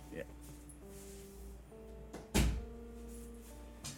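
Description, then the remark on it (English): A door shuts once with a single dull, solid thud, standing out over a quiet, steady tonal hum in the background. “I'm gonna close my door.”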